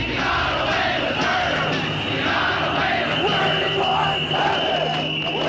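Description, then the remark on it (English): A large crowd shouts and chants together in the streets of San Francisco, protesting a court verdict; a dense, continuous roar of many voices with no pauses, loud, with an insistent, agitated energy throughout. “… joined a crowd in the streets of San Francisco to protest the verdict.”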